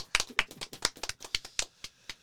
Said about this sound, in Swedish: Ja, du får en applåd här också. oh, jag applåderar er också.